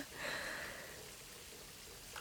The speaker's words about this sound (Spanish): Me inclino hacia él y dejo que el agua nos salpique a los dos.